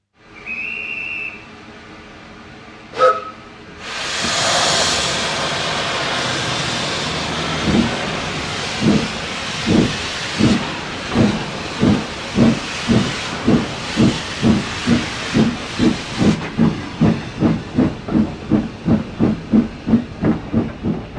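A steam locomotive at the Franz Josef station in Prague gives a short whistle, then releases a loud burst of hissing steam before its chuffing starts, slowly at first and quickening into a steady rhythmic beat as the train pulls away.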